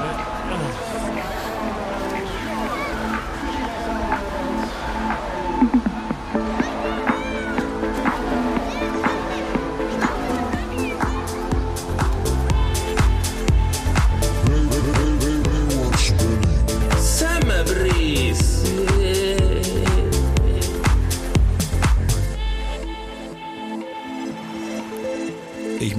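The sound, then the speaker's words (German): The opening theme of the show Baywatch Berlin Summer Breeze plays from a boombox, a steady, busy stretch of music with layered tones and what may be voices, staying loud throughout before cutting off abruptly near the end. “Das ist der Opener von Baywatch Berlin Summer Breeze.”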